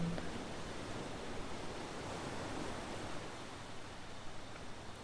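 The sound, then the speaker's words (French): Steady, broad hiss of ocean surf washing in, a continuous soft roar with gentle swells and no distinct breaks, heard at a low, even level with no voices. “Elle semble s'être calée au rythme des vagues.”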